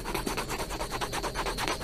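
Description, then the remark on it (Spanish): A pencil rubbing back and forth across a sheet of paper to reveal text pressed in by a pen, in quick, steady strokes, a soft dry scratching rasp repeating about five times a second, with no voices. “Lo saco y empiezo a, rayar la, hoja.”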